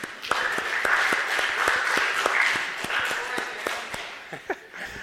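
A round of applause from a crowd, many hands clapping in a dense, steady patter for about four seconds before thinning out to a few scattered claps.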